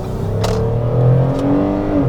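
A car engine revs up, its droning hum climbing steadily as the vehicle pulls out from a stop-sign junction in front of traffic and accelerates hard, with no voices over it.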